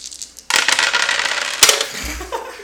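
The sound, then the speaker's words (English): Dice drop with a sudden clatter during a tabletop role-playing game and keep rattling and rolling away across a hard surface for a couple of seconds, ending up behind cords, with one sharper knock partway through, loud. “you did it again. It, it just loves the dice, man. It's like a void. It's in there somewhere.”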